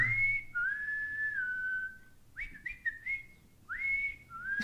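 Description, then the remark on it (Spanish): A person whistles an imitation of a sandwich vendor's (sanguitero's) call: a long sliding tone followed by a few shorter warbling notes, then the long tone repeats. It is fairly loud, with no talking. “El silbido del sanguitero.”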